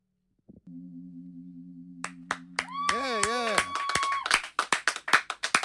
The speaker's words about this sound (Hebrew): אצלנו יש מנהג כזה שגם האמנים מוחאים כפיים, כי אחרת זה תחושה של יום הזיכרון.